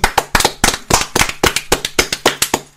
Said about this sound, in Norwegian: 'Saving Private Ryan' har vunnet yes. beste andre verdenskrig-film utenom fangefilmer. Stor applaus til den.